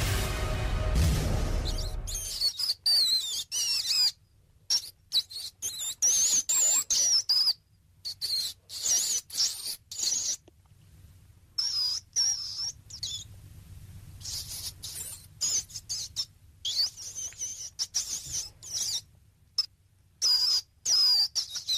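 Mice squeaking in rapid, high-pitched chirps and trills, coming in irregular bursts with brief gaps, over a low steady hum and faint scuffling; a loud rustling burst opens it.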